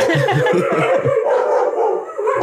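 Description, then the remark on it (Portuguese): Several dogs, a neighbour's 32 dogs fighting with the pets Ventanico and Snow at the gate of a house, bark, yelp and snarl over one another in a loud, continuous tangle, sounding like an agitated scuffle with no talking. “meu vizinha solta os 32 cachorros dele e eles vêm aqui no portão da minha casa brigar com o Ventanico e o Snow.”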